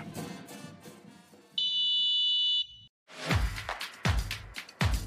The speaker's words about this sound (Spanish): Por ahí, Vero, ¿nos apoyas con la cortinilla, a favor?